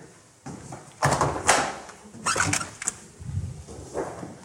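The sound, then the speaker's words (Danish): A fridge door is pulled open with a soft suction pop and rattle, followed by a few light clinks and rustles as things inside are shifted, with no one speaking. “Lad mig prøve at hente over i køleskabet.”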